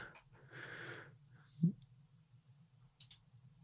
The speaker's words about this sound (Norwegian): Klikker meg inn.